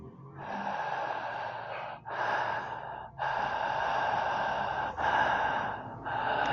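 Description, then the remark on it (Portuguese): A voice imitates a raspy, dragging breath, like a hollow wind, in several long airy pulls with brief pauses between them, fairly loud, with no words spoken. “Tipo, não era, não era bem uma respiração, assim, mas era algo tipo um som meio arrastado, assim, de vento.”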